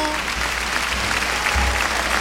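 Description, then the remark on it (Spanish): A large crowd gives an ovation in a bullring for the bullfighter El Juli, with the bullfighters and other professionals joining in. The clapping is a dense, continuous wash that stays loud and even throughout, with no voices standing out. “Los profesionales se suman al aplauso, qué bonito es esto. Los toreros están aplaudiendo al Juli. Todo el mundo aplaudiendo.”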